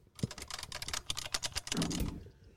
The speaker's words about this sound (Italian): Stavo manutenendo una, una, tastiera e stavo in particolare separando